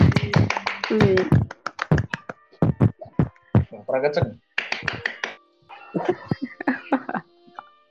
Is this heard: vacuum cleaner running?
no